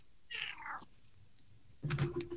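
A cat meows twice: first a drawn-out, falling cry, then after a short pause a lower, harsher meow. Both sound quiet, with no talking around them.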